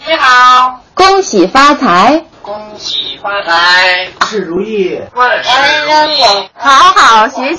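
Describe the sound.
A pet parrot at its owner's home, recorded after an interview, speaks a series of short, clipped phrases in a shrill, high-pitched, slightly rasping voice, repeating some of them, with brief pauses between each burst.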